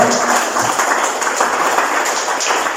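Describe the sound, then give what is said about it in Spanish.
An audience applauding the Lord in a church service: steady, dense clapping that holds at an even, fairly loud level throughout, a crisp rattling wash of many hands with no voices rising above it. “Le un aplauso de al Señor, por favor.”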